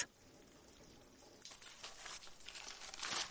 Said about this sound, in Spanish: Él arranca un trozo de papel de la pared.